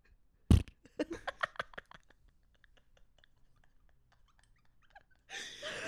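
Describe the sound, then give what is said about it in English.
Someone imitates a queef with their lips: a sharp pop, then a quick flurry of wet, sputtering lip flaps, trailing off before a breathy rush of air at the end. “That was a perfect queef noise.”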